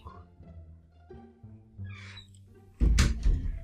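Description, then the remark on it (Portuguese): A chair creaks with low, groaning strain for a few seconds, then gives a single loud, heavy thump as someone sits down in it; the same chair also makes a loud noise when the person stands up. “Aliás, esse negócio da cadeira é o seguinte, acho que é até uma boa pra colocar no, no final, porque ó, quando eu levantei veio um puta barulho, agora quando eu sento ela também, ó, também faz.”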